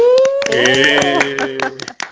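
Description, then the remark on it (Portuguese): Quick, steady hand claps ring out for about two seconds while voices whoop and cheer over them, the clapping trailing off at the end. “Palmas porque a gente merece.”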